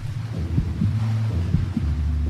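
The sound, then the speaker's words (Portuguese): A deep, muffled heartbeat of a swimmer thumps at a steady pace over a low, rumbling wash of water, enveloping, with no voices. “Quando mergulhava, todo o barulho em volta sumia Enquanto nadava, forçando-se a ir cada vez mais rápido, só ouvia o seu coração e a água.”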